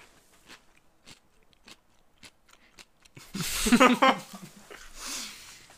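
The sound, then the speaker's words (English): Crisp crunches of someone biting and chewing a crunchy, sweet dill pickle, sharp irregular snaps for a few seconds, then a louder voiced murmur takes over and drowns out the chewing. “They're not your normal pickle. They're crunchy.”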